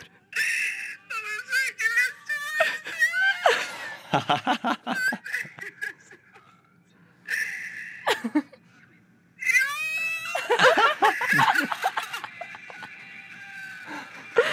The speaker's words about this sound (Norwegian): Du hylgriner. Du hylgriner av uh, den nyeste Gardens of ja. the Galaxy-filmen.